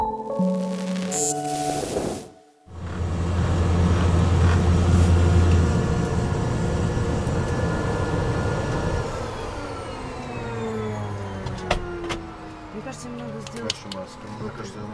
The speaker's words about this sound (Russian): заглушили двигатель, и наша Сесна приземлилась на берегу озера Туркана